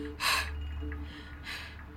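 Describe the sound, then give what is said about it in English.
Two heavy, labored breaths, a sharp gasping inhale followed about a second later by another rough breath, fairly loud, with no talking. “Are you okay? You breathing mighty hard.”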